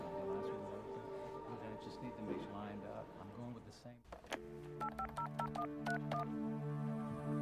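The telephone number of lawyer Allen Masters is dialed on a touch-tone keypad, a quick series of short, clear beeps in an uneven rhythm, following a few seconds of steady, busy background sound.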